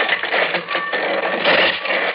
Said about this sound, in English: I've got to get out. The door. Slide it open.